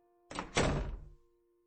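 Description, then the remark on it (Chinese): A door swings shut with two quick thumps, a lighter knock followed by a heavier, fuller thud that decays over about half a second, with no voices around it. “没过一会儿，母亲回来了，关上了门。”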